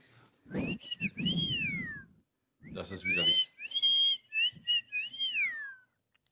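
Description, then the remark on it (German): A person whistles a gliding melody imitating a synth sound in several loud phrases with sliding pitch, mixed with brief bursts of speech between and under the whistled notes. “hätten die damals mich genommen, äh, ich glaube, das wäre viel das hätte besser geklungen und wäre wahrscheinlich noch billiger gewesen als dieser Sinti-Klang”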